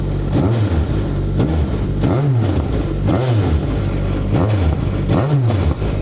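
A Citroën Xsara WRC rally car engine revs repeatedly, rising and falling in sharp blips about once a second. It's loud and raw, with a rough, crackling mechanical edge and no voices.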